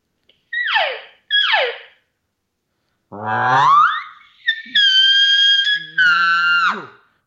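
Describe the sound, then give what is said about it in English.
A voice imitates a growl, kept soft so as not to wake sleeping kids: two short falling yelps, then a rough rising sweep and loud sustained high wails layered over a low growling undertone that drops away at the end. “and then I'll go back into the growl a little bit.”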